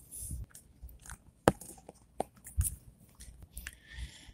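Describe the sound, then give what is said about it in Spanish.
A white cane swept left to right across a carpeted floor without being lifted, using the constant-contact technique, with each step while walking: soft, gritty scraping broken by sharp ticks and clicks at an uneven pace, fairly quiet throughout with no one speaking. “pero como esto es alfombra, pues realmente no lo que utilizo es una técnica que es el constant contact, o sea, eh, constante contacto, donde simplemente muevo el bastón sin levantarlo del piso de izquierda a derecha. Voy entonces a estar caminando.”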